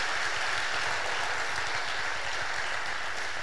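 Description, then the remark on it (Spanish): A church audience applauds one another at the preacher's urging: many hands clapping together into a dense, even crackle that holds at a constant level throughout, with no voices over it. “Bueno, si se van a aplaudir, apláudanse bien, hombre.”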